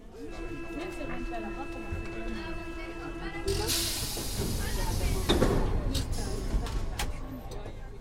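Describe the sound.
Métro train ambience on a ride toward Place d'Italie: a steady low rumble with a humming motor whine, then a sudden loud rush of hissing air about halfway through, with faint murmuring voices in the background.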